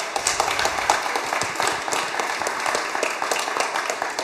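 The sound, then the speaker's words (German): Steady audience applause at a team game round as the next person from the teams comes to the front, many hands clapping in a dense, continuous patter at an even loudness for a few seconds, with no one speaking over it. “Ja, äh, nochmal kurz Applaus.”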